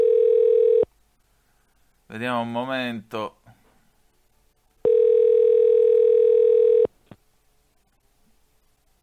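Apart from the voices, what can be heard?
telephone ringing tone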